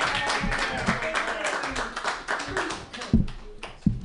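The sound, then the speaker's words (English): A crowd claps steadily to welcome a musician to the stage, a dense wash of hand claps with a few sharper individual claps near the end, lively, with some cheering voices mixed in. “Clap your hands together, everybody,”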